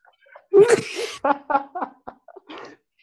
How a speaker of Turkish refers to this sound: Hapşırıyor mikrofonu kapat.